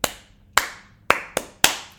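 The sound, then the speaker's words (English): Five sharp hand claps in a rhythmic pattern, loud and crisp with short decays: a teacher's clapping callback to get students' attention, which the class echoes back. No voices are heard. “which is kind of that typical, you know, way to get a student's attention and then everybody echoes it back, they're doing a callback.”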